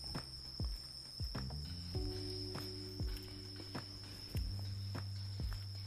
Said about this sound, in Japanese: スズムシをね多分これすげえいい音